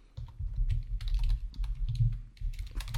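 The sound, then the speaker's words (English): Rapid, uneven computer keyboard typing as someone searches online, with dense clusters of sharp clicks and clacks, continuing steadily for a few seconds with no one speaking. “Um, you hear me googling furiously because I'm embarrassed that I don't remember.”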